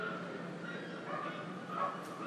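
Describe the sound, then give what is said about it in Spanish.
Several dogs bark far off, a steady jumble of overlapping yaps and woofs softened by distance, with a faint background hiss and no voices. “Hay perros a lo lejos ladran los perros.”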